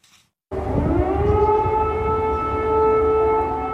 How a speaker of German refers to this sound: Die Menschen in der Ukraine erlebten eine Silvesternacht mit landesweitem Luftalarm. Überall warnten Sirenen vor russischen Angriffen.